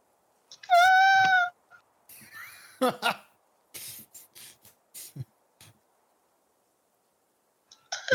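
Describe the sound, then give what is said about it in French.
A voice imitates a frightened cry: one loud, high, wavering wail of about a second. Breathy, shuffling noises follow, then silence. “ça, c'est, ça le cri d'effroi.”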